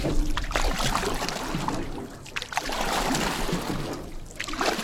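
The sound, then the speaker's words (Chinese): Water sloshing and splashing steadily as a small boat is paddled by the guide alone through a flooded rainforest across a river, slipping between the trees, with several strokes surging louder over a continuous watery wash. No voices. “导游让我们所有的人都不要说话，只有他一个人在划水。”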